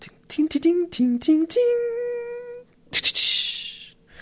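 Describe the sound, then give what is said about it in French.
A single voice vocalizes a short jingle: a few quick pitched syllables rising into one long held note, then a breathy, hissing burst to finish. “Là, j'aurais pu mettre un petit jingle.”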